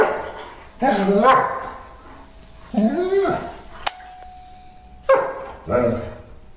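dog barking

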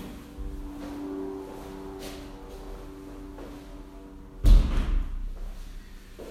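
door being closed

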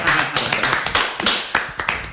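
clapping

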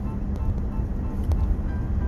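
inside a car

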